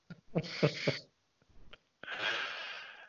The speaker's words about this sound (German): Ich muss mich noch räuspern.